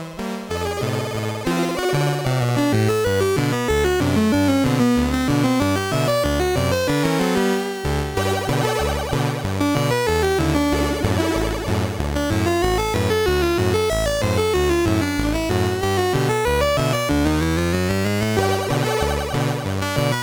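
A bright chiptune melody in a jaunty fairground carousel style, from the 1985 video game Kong Strikes Back with music by Galway, plays continuously at steady volume, with bouncing square-wave bass and arpeggiated lead lines typical of early video game music.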